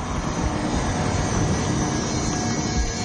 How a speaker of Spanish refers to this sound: Un coche se aproxima al joven.